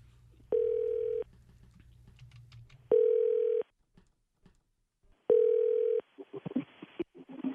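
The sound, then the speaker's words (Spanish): A telephone ringback tone while calling: three steady, mid-pitched beeps, each lasting under a second with pauses between, over faint background noise and brief clicks. “Márcale, por favor, tu cara, perro.”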